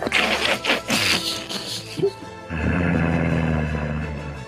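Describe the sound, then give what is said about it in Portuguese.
A voice imitates a wolf's snarling growl, rough, rising in a burst and then settling into a sustained low rumble for several seconds. “Eu tô em forma de lobo, não posso falar.”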